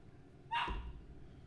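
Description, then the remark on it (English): A dog lets out one short, sharp bark, over in under half a second, with no one talking. “Even the dog agrees.”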